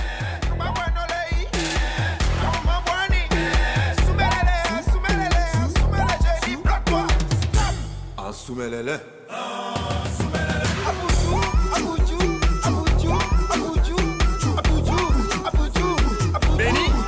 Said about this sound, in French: Et les deux artistes expérimentent à la fois le coupé décalé et l'afro house. Et le mélange est plutôt réussi.